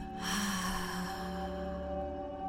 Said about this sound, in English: Now, moving into the next part of our guided breathing session, this time inviting you to go ahead and inhale through your nose and exhale through your mouth.